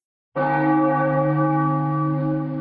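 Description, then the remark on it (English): A single loud bell rings out after a moment of silence, its rich harmonic tone sustaining steadily with a long resonant ring and no voices present. “I'm gonna I'm gonna ring the bell one last time.”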